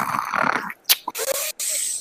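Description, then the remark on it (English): A man imitates snoring with his voice: a raspy, drawn-out inhale, then a few quick sharp snorts and a thin whistling exhale, fairly loud. “It was like you could tell that he had like just dozed off, and he was like holding his phone to where it could still see him, and he was like, like he's snoring, and then he's like.”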